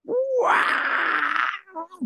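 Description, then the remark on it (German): A voice imitates a frightened scream at the loud bang of a pan thrown into a sink: a short rising cry bursts into a loud, harsh, shrill shriek held for about a second, then breaks off into a few brief, lower vocal sounds. “so richtiger Schrei.”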